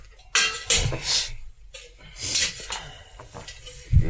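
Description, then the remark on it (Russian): Bronze dishes and a metal brazier are set down and shifted about, with several clanking, scraping metallic knocks spread over a few seconds, moderately loud. “а можно вот э, бронзовую посуду нам и жаровню?”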